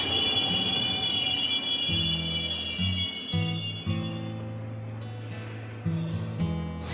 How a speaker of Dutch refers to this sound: Oh, volgens mij zie ik hem zelfs al aankomen daar. De trein naar Heerlen, die moet ik hebben.